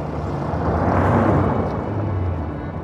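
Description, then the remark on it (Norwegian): A low, rumbling car engine drone runs steadily throughout as the car drives off through the streets, swelling slightly near the middle before easing off a little as it grows more and more distant, with no voices present. “Duren fra bilmotoren ble fjernere og fjernere, og til slutt var bilen bare en svart prikk som gled gjennom gatene.”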